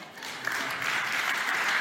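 Audience applause: a dense, steady wash of many hands clapping, holding at a fairly even loudness and swelling slightly toward the end, with no voices heard.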